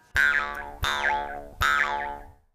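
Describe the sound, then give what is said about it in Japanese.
Three twanging plucks of an Ainu mukkuri mouth harp, each a sharp attack followed by a wavering, sliding boing-like resonance that rises and falls in pitch, played alone with no talking. “よく皆さんこう耳にするむっくりビョンビョンってやつですね”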